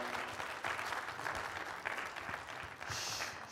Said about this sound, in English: Um, appreciate her so much. Absolutely, she deserves an applause.